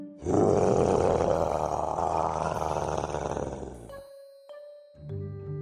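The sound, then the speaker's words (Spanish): A huge monster cat lets out one long, loud roar, rough and growling, that fades after a few seconds into a ringing tone and a low rumble. “Hay un enorme gran gato, ¿no”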